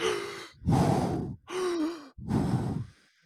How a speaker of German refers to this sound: Also für alle, ich hole euch mal ab, die Wimhoff Atemtechnik geht so, dass man ungefähr 30 Mal äh, ein- und ausatmet sehr, sehr intensiv, aber ohne Pause zwischen dem Ein- und Ausatmen. Das heißt, es hört sich dann irgendwie so an.